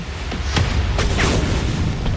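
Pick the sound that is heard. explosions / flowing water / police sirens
explosions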